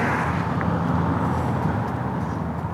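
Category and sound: vehicle, car driving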